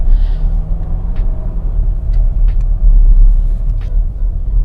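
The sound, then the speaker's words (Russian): Inside an XC60 car, a steady, heavy low-end road rumble as it drives over an artificial speed bump, with noticeable swaying. The drone swells briefly, with a few faint knocks and rattles over the top. “И опять-таки обращу ваше внимание, то, что мы сейчас переезжаем искусственную неровность но я отмечаю какую-то раскачку.”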